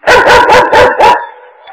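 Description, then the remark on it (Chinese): A dog barks at the front door five times in quick, even succession, each bark loud and sharp, signalling a visitor arriving, followed by a fainter, steady tone that lingers briefly after the last bark. “哎，门前换狗叫，必有客人到啊！”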